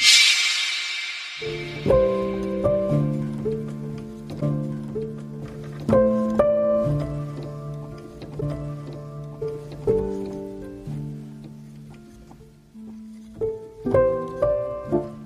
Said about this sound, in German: würde ich sagen, wir hören am besten genau in diesen Song rein, weil er gerade in dieser Debatte, glaube ich, passt er ganz gut.